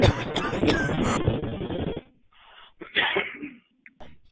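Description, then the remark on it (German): A harsh coughing fit from a person with a heavy cold, a loud dense burst lasting about two seconds, then a brief pause and a shorter, rougher cough with ragged breathing trailing off. “Und auch noch einige andere Sachen, die ihr am besten durchlest, bevor ich hier gleich wieder den nächsten Hustenanfall habe.”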